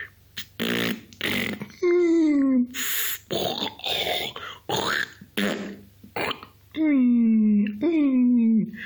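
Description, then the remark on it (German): Someone vocally imitates the snoring of a neighbour in a hospital room: raspy, snorting bursts alternate with falling, wheezy whistles, the sequence repeating several times in loud, uneven breaths. “Der, dieses Konzert, das der Nachbar da gemacht hat, veranstaltet hat, der Kollege, wie man hier im Krankenhaus Jargon zu seinem Zimmer nach was sagt, dieses Pfeifen und Röcheln und Prusten und Wimmern und das, ist was eine Mischung aus Geräuschen.”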